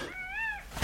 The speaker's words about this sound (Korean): 뭔 일 있나? 나는 수컷 공작의 유별난 울음소리에 깜짝 놀라 마당으로 뛰쳐나가서 지붕을 올려다보았다. 그곳에서는 수컷이 그날따라 유별나게 격한 소리를 토하고 있었는데